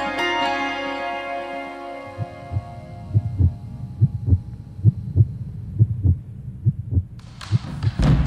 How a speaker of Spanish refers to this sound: Si su corazón late de esta manera, no lo dude un segundo más y sintonice Universidad 100.7 todos los lunes a las 20 horas para empezar la semana con humor, salud y buena música.